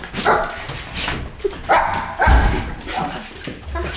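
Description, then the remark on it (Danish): A hunter's two dogs, a large wirehaired pointing dog and a small Jack Russell Terrier, bark fairly loudly every second or so, mixed with higher yips and whimpering whines, over a busy background with some faint voices. “Man kan sige, at den sidste vigtige jagt, jagtaccessory, det er jo dine hunde. Ja. Dem har du nemlig to af.”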